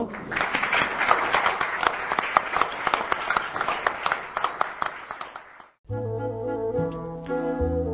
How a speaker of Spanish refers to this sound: Después de semejante alegato hay que terminar con un aplauso para el escritor.